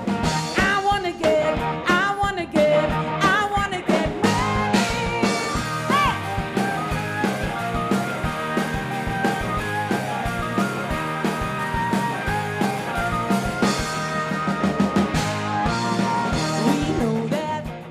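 A full-band song plays steadily from start to finish, with punchy drums, bright sustained melodic instruments and a driving beat, loud and close with no talking over it.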